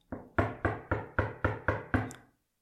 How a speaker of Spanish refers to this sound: Mientras los ciudadanos se agolpaban afuera, llamaron fuertemente a la puerta.